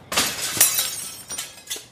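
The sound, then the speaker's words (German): A glass bottle shatters with a loud crash, followed by a few scattered bursts of breaking glass and falling shards over about two seconds. No voices. “Bei Schiffstaufen sollen die Glasflaschen am Schiff zerschellen.”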